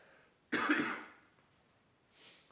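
coughing

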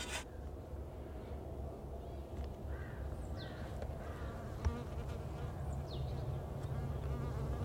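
honeybee buzzing

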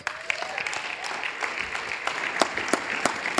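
audience applause

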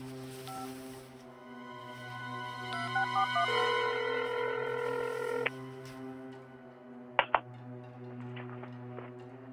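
telephone keypad dialing tones

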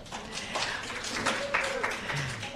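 audience applauding

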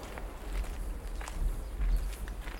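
footsteps walking through woodland

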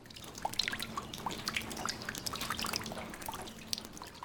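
water dripping

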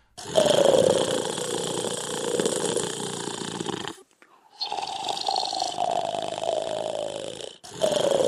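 loud snoring

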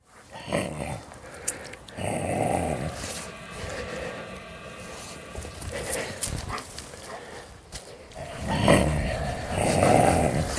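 dogs growling

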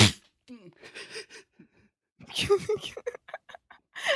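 a person sneezing

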